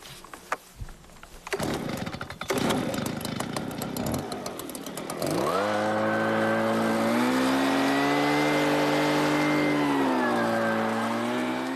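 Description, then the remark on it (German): A modified two-stroke leaf blower, used as a suction sampler to vacuum up insects on a grazed pasture at Taubergießen, clatters and rattles to life, then revs up into a loud, steady whine that holds for several seconds with slight pitch shifts. “Mit einem umgebauten Laubbläser saugt er eine Probe ein und findet über 100 verschiedene Arten.”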